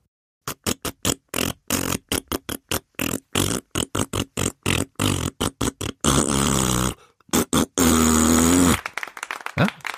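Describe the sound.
A rapid series of short, buzzy mouth-made fart noises stepping through a film theme melody played without an instrument, loud, ending in a few longer sustained raspberry blasts.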